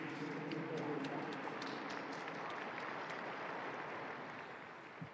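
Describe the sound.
A crowd claps steadily in sustained applause for Orthodox and Eastern Catholic Christians, dense and continuous, with a faint murmur of voices beneath that gradually tapers off toward the end.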